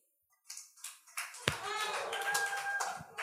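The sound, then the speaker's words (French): A few scattered claps start up and build into moderate applause from a small crowd, with sharp individual hand claps standing out and murmuring voices underneath. “Dans le fond, euh, je ne sais pas ici par applaudissement qui, qui était des enfants non désirés.”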